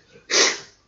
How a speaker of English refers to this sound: Bless you. Very good, very good. So I had to just a pause for a quick sneeze break.